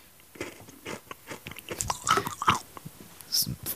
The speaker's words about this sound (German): Frisst du Kandes oder was ist das? Was ist denn das?